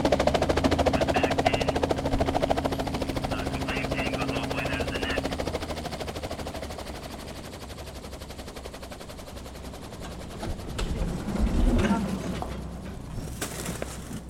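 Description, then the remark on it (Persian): A helicopter's rotor chops in a rapid, steady beat, loud at first with a low engine drone, then thinning slightly as it continues without any voices. The helicopter is at a remote logging camp, carrying an injured person to a hospital 65 miles away. “واقعا که حضور اون هلیکوپتر تو منطقه اونا و تو اون لحظه یه معجزه بود.”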